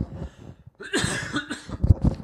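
A person clears their throat several times in a row, with rough, raspy bursts and brief pauses between them; no talking.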